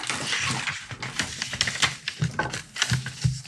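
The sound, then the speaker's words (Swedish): Dry scratching and light tapping of a pen signing a paper guestbook page, with soft rustles and a few sharper clicks spread through a few seconds. No one speaks. “Du ska ju såklart som alla andra få eh, signera i eh, vår gästbok.”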